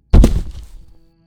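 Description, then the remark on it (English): A single heavy, muffled thud of a woman's head hitting a carpeted floor as she keels over, sudden, with a short low rumble that fades within a second. No voices. “her skull thumping hard against the carpeted floor.”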